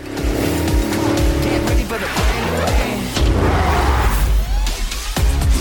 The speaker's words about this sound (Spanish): Así que de fondo está sonando el tráiler que revelaba las series S, es que a mí me ponen mucho las pilas, la verdad, escuchad.